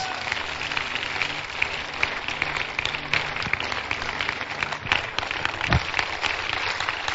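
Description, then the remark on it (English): A church audience claps their hands together at a prayer service in a sustained burst of applause, a dense, steady patter of many hands with no clear rhythm, filling the whole clip at an even loudness. “Clap your hands.”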